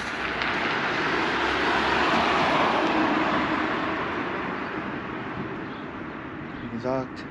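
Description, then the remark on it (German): Steady wind, coming from the right, roars and buffets against the microphone beside a street outside a Media Markt store, a loud, rumbling rush with gusty low thumps throughout, easing slightly toward the end, where a brief voice cuts in. “Wind kommt von rechts zurzeit.”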